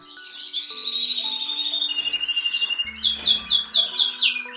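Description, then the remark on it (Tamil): A blue pigeon calls amid other birdsong, with a sustained chorus of high chirps and then a fast series of rhythmic, repeated calls, fairly loud, with no talking. “ஒரு மாதிரி நீல புறா புறா இந்த புறாலாம் ரொம்ப ஸ்பீடாக ரொம்ப அதிகமான தூரத்தெல்லாம் கடந்து பறக்கக்கூடிய ஒரு பயங்கரமான பறவை”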